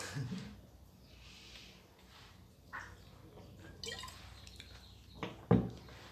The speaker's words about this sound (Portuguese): Bebi uma água quando vocês pensam.